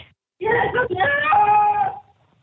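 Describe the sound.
A woman in labor, on all fours in a bathtub during an emergency call, lets out one long, strained groan, loud, her voice tightening and wavering with effort for a second or two before falling quiet.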